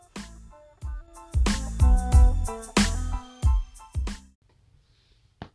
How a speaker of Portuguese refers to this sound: Esse barulho que você está ouvindo é da cadeira. cadeira. Eu, eu não me incomodo com esse barulho, então espero que você também não se incomode.